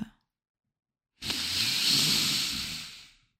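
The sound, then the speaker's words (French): A voice imitates a man sniffing at someone's neck: a long, drawn-out nasal sniff, a single breathy hiss lasting about two seconds that swells and then fades, following a moment of silence. “C'est-à-dire que le mec commence à me renifler mais pas euh, un reniflement euh, mignon.”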